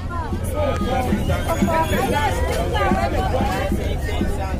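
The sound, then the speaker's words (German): A bustling outdoor street market crowd, selling everything from car tyres to fruit and second-hand European clothing, heard from a car driving through on a hot, humid summer day, fills the scene with dense overlapping chatter, many voices at once at steady, loud volume, with a low rumble of activity underneath. “Ja, ja, das Treiben ist bunt und laut und hat seine ganz eigene Dynamik.”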